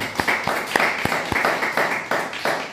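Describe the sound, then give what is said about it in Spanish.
Applause from an audience at a religious service, given in praise of God, with dense overlapping claps and a few sharp individual slaps standing out, fairly loud and steady throughout with no talking. “Un fuerte aplauso ahora sí al Eterno.”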